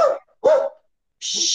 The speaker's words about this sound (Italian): Sentirai un po' il cane abbaiare.